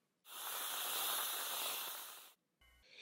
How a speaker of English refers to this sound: Pat's mother whipping the cream.